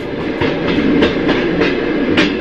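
Sleeper train carriage wheels clatter steadily over the rails at night, a loud continuous rumble with regular sharp clacks recurring roughly every half second. No one speaks.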